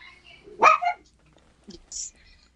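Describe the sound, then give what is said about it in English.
A dog lets out one sharp, fairly loud bark, followed by a couple of softer, brief noises and quiet background. “Sorry, my dog decided to, to jump in on the conversation.”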